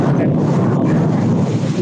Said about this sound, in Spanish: Se escucha la lluvia padrísimo.